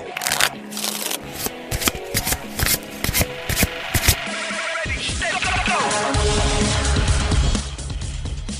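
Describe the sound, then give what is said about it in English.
Playing cards being shuffled: a run of crisp, papery snaps and taps, then a quick fluttering riffle that blends into a low, steady rumble. “It's time to shuffle up and deal.”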